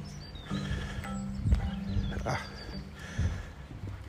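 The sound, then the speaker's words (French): An agitated dog right in front of the speakers lets out a few sharp, irregular bursts of barking over a steady, busy background noise. “Parce qu'il y a un chien un peu très énervé et un maître un peu très énervé juste devant nous.”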